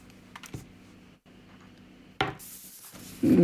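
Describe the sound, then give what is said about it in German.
Dice rattle and clatter across a hard tabletop in a few separate bursts as each player rolls for a listening check, with sharp clicking impacts, the last roll louder; no one speaks. “Ähm, gebt mir mal bitte alle einen Wurf auf Lauschen, bitte.”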